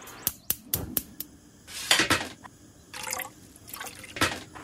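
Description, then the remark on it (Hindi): A few sharp metallic taps, then a little over two cups of water splashes and pours into a pressure cooker holding three-quarters of a cup of washed dal (lentils), in short, uneven bursts, fairly quiet, with no one speaking. “तो मैंने ये दाल धो ली है और अब इसे लगभग तीन गुना पानी डालकर मतलब थ्री फोर्थ कप दाल के लिए लगभग दो कप से थोड़ा सा ज्यादा पानी कुकर में डाल देंगे”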